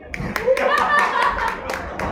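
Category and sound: crowd, audience applause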